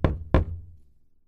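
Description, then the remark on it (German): A woman knocks cautiously on a wooden door after hesitating: two soft knocks, spaced about a third of a second apart, with a short resonant decay afterward and no voices. “Sie zögert, ringt sich schließlich durch und klopft vorsichtig an.”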